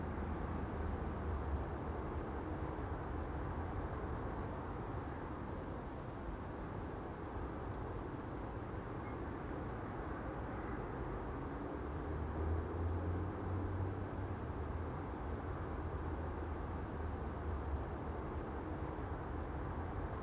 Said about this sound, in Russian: Звук номер 16. Улица Симашка, Кировка, 0 часов 48 минут.